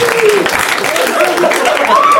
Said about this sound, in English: Now they're just listening to random cheering.